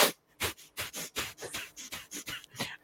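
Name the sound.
imitated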